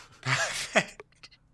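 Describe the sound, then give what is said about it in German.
A single sneeze: a rising, breathy intake with a voiced edge, then a sharp explosive burst, followed by a few faint breathy clicks and rustles trailing off. “hat ja gerade zufällig einer genießt.”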